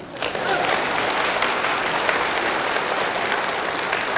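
An audience at a lecture on public speaking applauds steadily for about four seconds, many hands clapping into a dense, even wash of noise that stays loud without building or fading.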